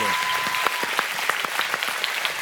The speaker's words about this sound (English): Now we can cheer. Can we cheer for these guys?